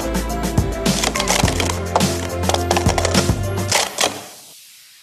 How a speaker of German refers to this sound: Ja, also wenn man einen Becher aufeinander stapelt und das möglichst kunstvoll, dann ist das äh, Sport Stacking. Klingt noch ein bisschen fremd, hören wir mal einfach kurz rein, wie es sich anhören könnte.